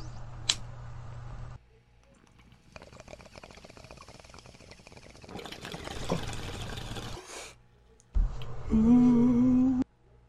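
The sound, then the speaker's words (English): Bong water bubbles and gurgles as someone takes a hit from a packed bong, in a steady, rapid rattle for several seconds, rising in loudness midway, followed by a brief click and a low steady hum near the end. “Give them a hit in our bong and uh, let's uh, let's just kind of see how they treat us.”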